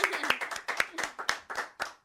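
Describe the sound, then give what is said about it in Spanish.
An audience on the show Litorales applauds, with many hands clapping in a dense, steady patter punctuated by sharper individual claps, and there is no talking over it. “aquí en Litorales, fuerte el aplauso.”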